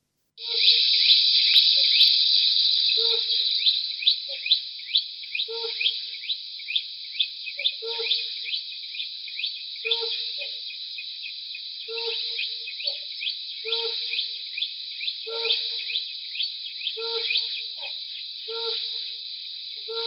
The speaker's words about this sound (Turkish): Guklayarak başlayan, giderek yükselen ve çılgın bir kahkahayı andıran sonla biten ötüşleri var. Kulak verelim.